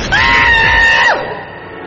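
A man lets out a single loud, sustained scream of fright lasting about a second, then it cuts off abruptly with a falling tail, leaving a low background hum.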